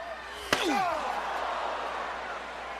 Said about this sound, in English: Oh, oh. chair shot just makes you sick, makes your, your blood just, your blood curl.